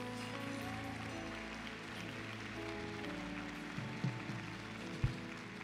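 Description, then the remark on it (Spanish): Sustained applause for Jesus during a sermon, a dense, steady wash of clapping that holds for several seconds, with a couple of dull thumps near the end and no voices. “Dale un fuerte aplauso a Jesús por estar muy serios.”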